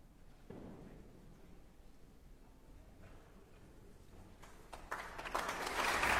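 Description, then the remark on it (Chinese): Concert hall applause at the 2022 Vienna New Year's Concert, welcoming conductor Daniel Barenboim, starting as a soft, scattered patter and swelling into dense, steady clapping by the end. It stays fairly quiet overall, with no one speaking. “下面，让我们再次用热烈的掌声欢迎指挥家丹尼尔·巴伦博伊姆，这是他第三次执棒维也纳新年音乐会。”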